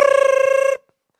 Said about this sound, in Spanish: Ese mismo día, that same day, a las 3, me acuerdo como si fuera hoy, a las 3 de la tarde sonó el celular.